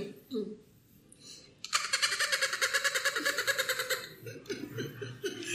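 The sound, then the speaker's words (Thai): A person in a café imitates the hoarse call of a bottlenose dolphin with plastic caught on its mouth: a burst of rapid, raspy, pulsing chatter lasting a couple of seconds, fairly loud, with brief murmurs and soft laughter around it. “เอาเสียงโลมาแบบแบบ เราต้องปกป้องมันเสียงโลมาแบบแหบๆนิดนึงอะ”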